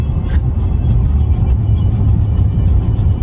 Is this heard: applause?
no